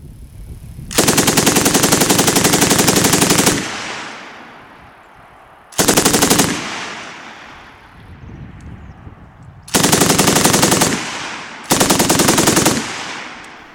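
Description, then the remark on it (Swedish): A KSB 58 machine gun fires four loud bursts of rapid automatic fire, one long and three shorter, each followed by a rolling echo that fades before the next burst. “För, för det är så här en KSB 58 låter.”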